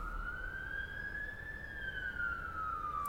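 An ambulance siren wails steadily and fairly loud, its pitch slowly rising then gliding down as it passes, over a low rumble of road noise.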